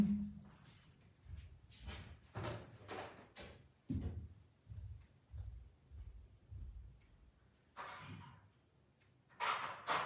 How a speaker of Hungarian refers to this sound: Egy pillanat csak nyitom az ajtót.